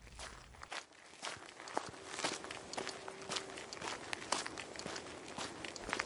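Steady footsteps walking at an even pace, each step a soft crunching thud, as Georg Elser, carrying detonators, a spring and his tools, heads to his parents' remote orchard. No talking. A faint steady tone hums briefly in the background.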